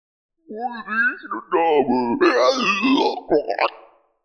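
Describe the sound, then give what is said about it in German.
A voice imitates a Bullywug creature going down on its knees, whimpering and moaning in a run of wavering, pitch-bending wails and groans, fairly loud, lasting a few seconds with brief breaks. “Der Bullywug geht auf die Knie und jammert.”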